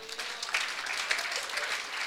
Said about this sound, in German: Kannst du dem Herrn einen Applaus geben? Halleluja.